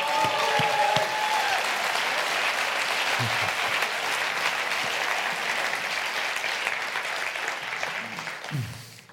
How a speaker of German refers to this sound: Wow, was für ein Morgen schon mit der Abschlusshymne, die nicht mal geplant war und die ihr trotzdem spielen könnt. Er gibt der Band mal bitte einen riesen Applaus.